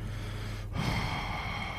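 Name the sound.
imitated heavy angry breathing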